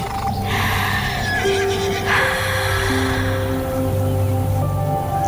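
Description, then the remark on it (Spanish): A horse neighs loudly as someone approaches and strokes it, a long whinnying call with wavering pitch, over a steady background of soft patter like light rain. “Ese momento en que te acercas a un caballo, lo acaricias y...”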